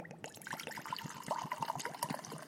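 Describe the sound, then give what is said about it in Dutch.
Dutch rum (Flying Dutchman) is poured into a glass in a short, steady stream, with a bubbling, gurgling trickle and no talking. “Dus eh, ik zal voor jou even een glaasje inschenken.”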